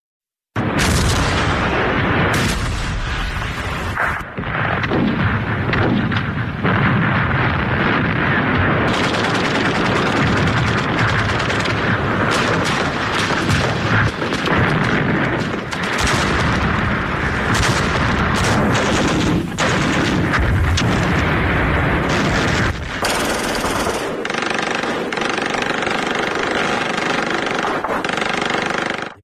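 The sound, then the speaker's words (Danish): Recorded German tanks and artillery fire on the Western Front in 1944, a loud, unbroken roar of heavy rumbling, punctuated by frequent sharp blasts and rattling bursts, with no voices. “Vi hører her tysk panser og artilleri på Vestfronten 1944, for det ender jo med, at danskerne kommer i kamp, især efter D-dagen.”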